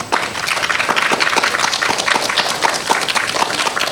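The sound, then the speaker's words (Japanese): Sustained audience applause for the Jonouchi secondary school disaster-prevention club after their presentation, a dense steady patter of many hands clapping at an even, fairly loud level throughout, with no voices over it. “え城之内中等教育学校高等学校防災クラブの皆さんに今一度大きな拍手をお送りください。”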